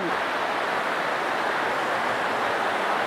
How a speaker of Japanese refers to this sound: すごい川のせせらぎが、はい、音拾えてるかな音拾えてますかね多分多分拾えてるとは思うんですけど